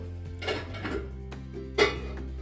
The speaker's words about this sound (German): Genau, da klappert schon wieder die Töpfe.